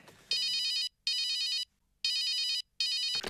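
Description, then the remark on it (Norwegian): A telephone rings at the start of a recorded phone call with a bright electronic trill, four short bursts in a steady on-off rhythm, loud, with brief silences between them and no one speaking. “Så um, jeg tok opp en telefonsamtale vi hadde en gang, for, for å illustrere hvor dårlig det fungerte.”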